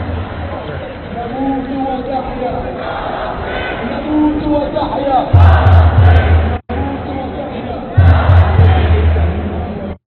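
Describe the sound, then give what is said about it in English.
A dense crowd murmur of overlapping voices and occasional raised shouts at a street protest in Toronto, where police are getting ready, continues throughout, joined in the second half by two heavy, low rumbling bursts. “Um, so th- that crowd was in Toronto, and here and here's um, just a little just a small clip of of the police that are getting ready, just in case anything gets out of uh, control.”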